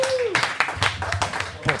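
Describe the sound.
A few scattered, uneven hand claps ring out, a brief smattering of applause with voices and a bit of laughter mixed underneath.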